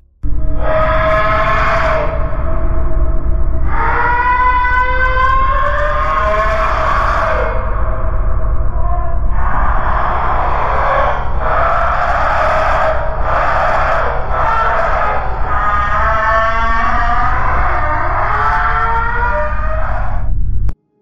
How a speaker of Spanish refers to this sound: Este, vamos a seguir con otra, eh, otra grabación que evoca criaturas.